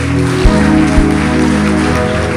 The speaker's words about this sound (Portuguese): Vamos aplaudir o nosso Deus, vamos.